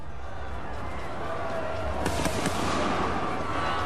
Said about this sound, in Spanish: Acaban de sonar disparos y con ellos llegan las primeras muertes. Pero ¿quién disparó primero? ¿Los asediados o los amotinados? No creo que esto se pueda aclarar jamás. Supongo que fueron los defensores los primeros en disparar